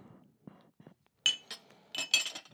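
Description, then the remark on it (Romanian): Glass toys clink against each other, a few bright ringing taps in two small bursts, with soft handling knocks and rustling between them. “Și niște batlaguri de, de sticlă.”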